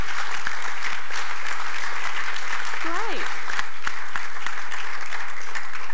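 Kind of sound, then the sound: crowd, audience clapping hands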